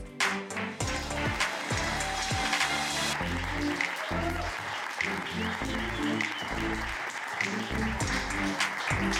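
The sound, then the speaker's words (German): An audience at a live stand-up comedy open mic claps and cheers to welcome the hosts in a dense, continuous wave of applause, sustained throughout, with loud rhythmic music thumping underneath and occasional shouts from the crowd. “Begrüßt sie mit einem großen Applaus.”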